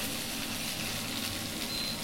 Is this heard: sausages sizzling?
yes